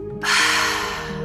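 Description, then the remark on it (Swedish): A long, airy exhale through the mouth, following a breath in through the nose and a brief hold in a guided breathing exercise, begins after a brief pause and continues steadily to the end, fairly loud, over a soft, sustained musical drone. “Och andas ut genom munnen.”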